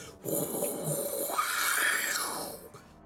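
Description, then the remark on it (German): A person imitates blood being sucked in a whirlwind-like swirl into the middle of a cage, a sustained breathy whoosh that swells and arcs upward in pitch, like air being sucked inward, lasting a few seconds before fading. “Also drumherum, wie, wie bei einem Wirbelsturm, in die Mitte des Käfig, Käfigs gesogen wird. Und ich höre das so.”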